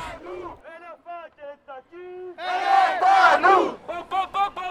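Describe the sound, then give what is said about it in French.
A crowd of students protesting against the rise in registration fees set by Macron's government chants in rhythmic, clipped bursts, swelling into a loud, dense roar of many voices midway before returning to short, regular shouted phrases. “un passage pour aller voir les étudiants remuant, bloquant et manifestant à la solde de l'étranger.”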